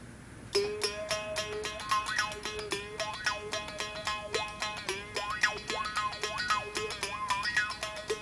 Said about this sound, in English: Mouth bows are being made by people all over the world for thousands of years. It's one of the oldest musical instruments in the whole world.